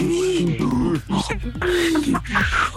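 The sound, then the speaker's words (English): A person vocally imitates the wheezing, groaning materialization sound of the TARDIS, a time-travelling police box, with two long rising-and-falling grinding swells, loud, with no words spoken. “Yo, can um, we make the TARDIS sound in there?”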